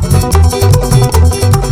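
Lively Amazonian regional music with an Andean flavor plays loud and close, a bouncing bass line under steady percussive hits, with no voices.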